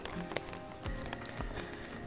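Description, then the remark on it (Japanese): Heavy rain patters steadily on an umbrella while someone walks in it, a dense hiss broken by sharper individual drop taps, with a few low thuds like footsteps or handling underneath. No one speaks. “雨の中を歩きながら、傘の雨の音をバックに”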